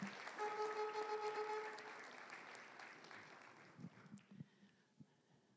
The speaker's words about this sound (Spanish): Démosle un aplauso, hermano. hermano. Démosle un aplauso, precioso.